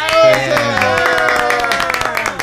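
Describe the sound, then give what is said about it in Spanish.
A crowd applauds steadily with a dense patter of claps, mixed with loud voices cheering and calling out over it, energetic throughout. “Un aplauso.”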